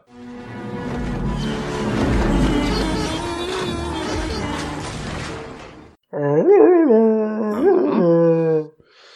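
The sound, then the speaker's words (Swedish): A voice imitates a Wookiee from Return of the Jedi: a long, loud, raspy roaring growl, a brief break, then a wavering, strongly tonal howl that rises and falls in pitch before cutting off. “Apropå Tarzan så tittade jag på Return of the Jedi på bio igår och fick höra en Wookie låta.”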